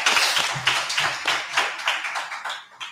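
Applause from a small group: a dense patter of hand claps with bright, crisp hits and a few louder accents, fairly steady for three seconds before thinning out at the end. No one speaks.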